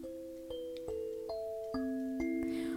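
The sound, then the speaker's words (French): Quiet, gentle meditation music plays alone: soft sustained tones, struck one after another every half second or so, each note ringing out and overlapping the next in a calm, slow progression. “Revenez à présent au bruit que vous entendez autour de vous, peut-être les plus lointains à l'extérieur de la pièce dans laquelle vous vous trouvez, puis les bruits de plus en plus près de vous jusqu'au son de ma voix et de la musique.”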